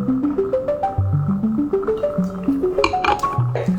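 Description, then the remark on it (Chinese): Glasses clinking together in a toast, a few bright chinks mixed with gurgling, bubbly liquid sounds whose pitch steps upward in short runs, fairly loud, with no talking. “来，我们干杯。”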